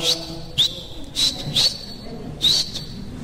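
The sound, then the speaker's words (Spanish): A person whistles a series of about five short, sharp, high chirps in an uneven rhythm as a greeting, clear over a faint background, with no talking. “Ya, está chiflito, ya, hicimos conecte, ya.”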